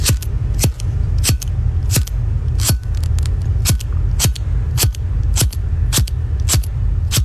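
A lighter being flicked over and over, about a dozen sharp metallic clicks at a fairly steady pace, loud, over a constant low rumbling hum.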